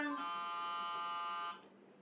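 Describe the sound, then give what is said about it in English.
A loud, harsh game-show-style buzzer for a drinking game blares steadily for about a second and a half, then cuts off abruptly into faint background noise. “The buzz is coming up, guys.”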